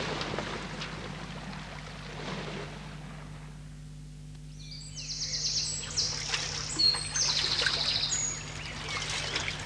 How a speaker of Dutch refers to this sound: Het is een riviertje, Astra. Net als de rivieren op aarde die we op de video zagen aan boord van de Challenger. Nou, wees nou maar voorzichtig. Misschien is het giftig. Astra, het is fris water. Het smaakt heerlijk.